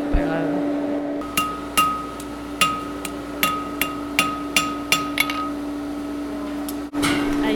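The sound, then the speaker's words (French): A hammer pounds hot metal to flatten it in a steady run of about a dozen sharp, ringing blows, fairly loud, over a constant low hum in the background. “Attends, t'essaies de l'aplatir, c'est ça J'essaie de faire le, le truc.”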